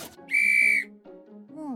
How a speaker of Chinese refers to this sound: 到危险的时候可以用这个。嗯，哨子也有了